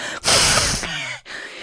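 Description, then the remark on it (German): A voice imitates an ogre's angry snort: a loud, forceful nasal blast of breath followed by a shorter huffing exhale, alone with no talking. “Der Oger schnaufte noch wütender.”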